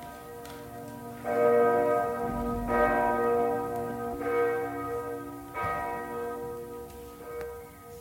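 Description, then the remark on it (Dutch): Large church bells ring out in a slow, overlapping sequence of about four deep, resonant strikes, each tone humming and decaying into the next, with no voices present. “Welke klokken hoor je nou? Leo? De grote klokken.”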